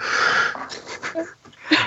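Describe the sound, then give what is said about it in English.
A large 60-pound dog, Zola, wheezes close to the microphone, a harsh, raspy breath drawn out for about half a second, followed by a few shorter snuffly wheezes and a final sharp exhale. “This is yeah, my dogs interrupt constantly.”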